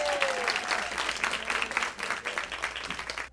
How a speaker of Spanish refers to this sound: Recibámosla con un fuerte aplauso.